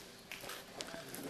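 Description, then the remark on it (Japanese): A few footsteps tap along a stone-paved street at an unhurried walking pace, fairly quiet, with faint outdoor background noise; walking the stone-paved road of Kanayamachi in Takaoka, Japan, an old street lined with lattice-fronted traditional houses. “これ石畳のね石畳の道なんですけど僕今歩いてるのが”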